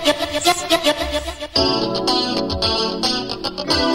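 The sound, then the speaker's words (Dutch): A 1980s pop song spins from a vinyl record on Jam FM 104.9 radio, opening with a lighter bouncy section before a fuller, louder arrangement kicks in with a steady beat and bright, layered instruments; no one speaks. “Ik draai hem helemaal vanaf vinyl.”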